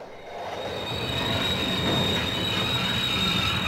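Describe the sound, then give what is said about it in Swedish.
A train rumbles loudly with a sustained, high metallic squeal from the wheels as it brakes to a sudden stop in an open field next to a forest, the grinding noise holding steady throughout with no voices. “Plötsligt stannar tåget.”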